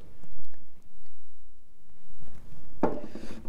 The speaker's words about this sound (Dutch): Even een slokje hoor.